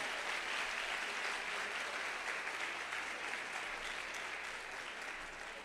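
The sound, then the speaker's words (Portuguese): A church audience applauds steadily for several seconds for a member who came from Alphaville, a dense, even wash of clapping that stays loud throughout and eases off only slightly at the end, with no voices rising above it. “Vamos aplaudir Alphaville, gente. Vamos aplaudir.”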